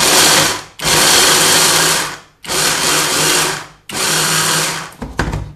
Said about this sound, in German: Dann geben wir 100 50 Gramm Walnüsse. Ich tue immer. Mhm. Ja, sind gut. In den Stabmixer. Mixen die durch. Das ist ein bisschen lauter.